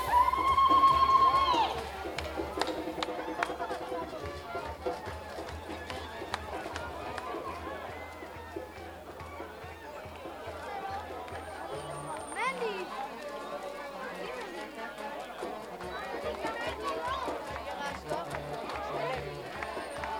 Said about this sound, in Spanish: Ahí van subiendo las escaleras. Suena como nuestra iglesia en un bautizo.